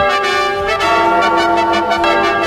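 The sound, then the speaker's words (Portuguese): Loud church bells, rung by the sacristan, clang repeatedly in a steady, overlapping peal, their ringing tones sustaining and blending together throughout with no voices present. “Toca o sino também, meu filho”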